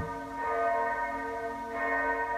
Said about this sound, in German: Darum geht es, wenn mittags die Glocken läuten.